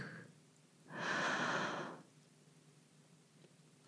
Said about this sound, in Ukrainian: Саме тому вона зупиняється біля кожної ялинки і на декілька секунд затамовує подих. Вдих. Видих. Вдих.